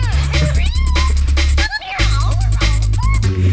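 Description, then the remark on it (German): Several cats meow in quick succession, their rising and falling cries overlapping and fairly loud, over a steady low droning hum with a brief pause midway. “Nein, man hört Katzen, die sie töten.”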